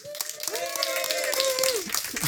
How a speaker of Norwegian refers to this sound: Dagens gjest er Snorre Valen. Ta ham imot som en rockestjerne, og litt applaus til Anders Heger også. Snorre Valen og Anders Heger!